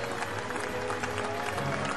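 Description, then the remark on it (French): A crowd of Trojans applauds young riders on horseback in a steady, dense patter of many hands clapping at once, holding an even loudness throughout with a faint murmur of voices beneath. “Les Troyens applaudissent les jeunes cavaliers, intimidés et se réjouissent en les regardant de reconnaître sur leur visage les traits de leurs ancêtres.”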